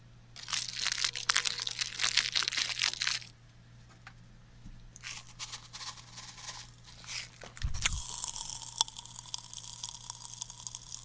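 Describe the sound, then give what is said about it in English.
Dense crackling and fizzy popping of pop rocks candy in a mouth, in two bursts, then a soft thump and a steadier, hissing crackle to the end. No talking. “Yeah, I was going to say, okay, so I'll do the pop rocks.”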